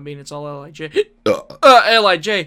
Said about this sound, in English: That was a total, total Rick moment. You just burped and continued your sentence.